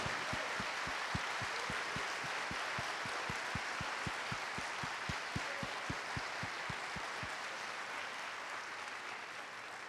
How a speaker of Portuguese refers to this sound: Igreja, podem aplaudir ao Senhor. Vamos aplaudir.